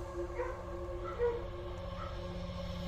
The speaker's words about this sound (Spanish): haciendo memoria, no era la primera vez que su perro ladraba. Hace varios días atrás venía haciendo lo mismo a esta misma hora.